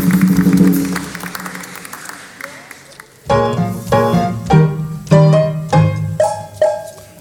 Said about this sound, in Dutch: Dames en heren, applaus.